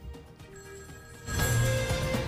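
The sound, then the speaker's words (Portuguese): A telephone rings for an incoming call from a listener to a phone-in program, its steady electronic bell tone growing louder partway through and sounding clearly on its own with no voices. “Já sabe que você pode ligar também para nós e participar do programa.”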